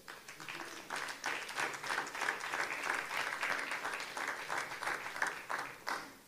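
A crowd applauds warmly, many hands clapping in a dense, steady wash that swells and holds for several seconds before fading, with faint voices mixed in.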